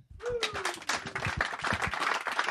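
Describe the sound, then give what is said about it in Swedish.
An audience applauds steadily as guests are welcomed up onto the stage for interviews, a dense patter of many hands clapping at a fairly loud, even level throughout, with no voices over it. “välkomna upp på scenen. Stor applåd.”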